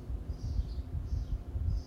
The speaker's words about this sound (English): Now you hear these birds in here. This is what I listen to all day long.